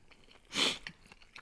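A single crunchy bite of bread made only of water, flour and salt, a broad crackling burst lasting about a quarter second, followed by a few faint soft chewing clicks and no talking.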